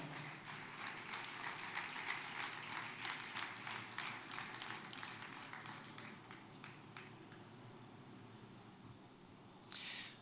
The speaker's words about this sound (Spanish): ¿Cuántos dicen amén y dan un aplauso de alabanza al Señor?